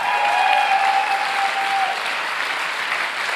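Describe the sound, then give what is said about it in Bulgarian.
An audience at a sermon applauds steadily, a dense, even wash of many hands clapping that holds loud and unbroken throughout, with a faint high tone or cheer riding over it in the first half. “О, ако ръкопляскаш, ръкопляскай, като че разбираш какво проповядам.”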